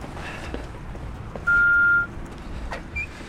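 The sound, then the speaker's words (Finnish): A single loud, steady electronic beep lasting about half a second, like an answering machine tone, rising out of a low background hum with no talking. “Tämä on vastaaja. Jätä viesti äänimerkin jälkeen.”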